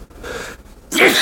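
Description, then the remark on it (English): A short breathy inhale gives way to a sudden, loud sneeze burst near the end, forceful, with no talking around it. “bless you, right.”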